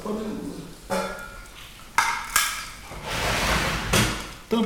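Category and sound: household object, rummaging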